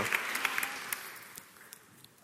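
Audience applause welcoming a speaker called to the front: a dense wash of many hands clapping with sharp individual claps popping out, steady at first and then gradually fading away over a couple of seconds.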